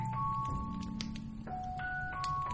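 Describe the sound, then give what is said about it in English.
Chimes ring in a slow, overlapping sequence, each clear metallic tone lingering as the next one sounds, steady, with no voices. “The sound of chimes fills the air.”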